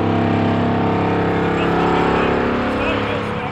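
A vibratory pile driver, its vibrating block sitting on top of a sheet pile, drones loudly and steadily as its vibrations drive the sheet pile into the ground, a continuous heavy mechanical hum with strong layered tones holding for several seconds.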